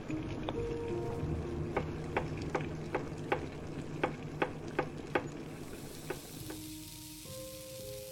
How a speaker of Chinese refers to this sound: 第一场奥运选拔赛，他一边用手机看直播，一边炒菜。